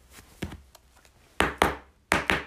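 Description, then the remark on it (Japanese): Knocking on the wooden door of a house: a few soft taps, then four sharp knocks in two quick pairs, loud and hollow with no one speaking. “そこの家、扉叩いてくれ。”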